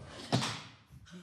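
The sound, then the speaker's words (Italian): A sudden sharp crack with a heavy low thump as a chair breaks under someone sitting on it, followed by a short rattling decay and then quiet. “Si è semplicemente ro- rotta la sedia sotto il mio sedere.”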